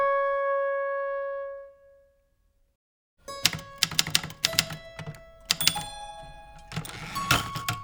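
A bell-like chime rings and fades, then after a brief silence a woman in her late sixties types on a coffee-brown Olympia Deluxe manual typewriter with four or five fingers, striking hard from above: uneven, energetic but unhurried keystrikes, with no voices.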